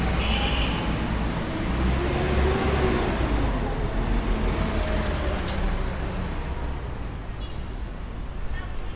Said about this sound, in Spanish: cuando escuchar un colectivo tomado de cerca llegas 86 decibeles.